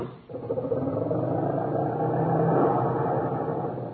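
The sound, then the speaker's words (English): An old, unrepaired car engine turns over and catches, then keeps running with a rough, rattling, sputtering drone, loud, with no voices. “You know, Rochester, one of the reasons I haven't fixed this car up is that I've been thinking of getting a new one.”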